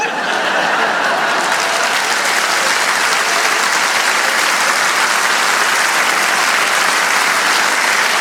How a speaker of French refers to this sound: Et tous mes sympathisants UDC qui applaudissent dans la salle sont d'accord avec moi.